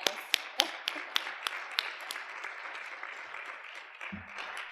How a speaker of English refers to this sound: but good morning, everybody, and welcome to the Fall 2022, this I believe, essay program Meet the Authors event. Let's start off with a round of applause.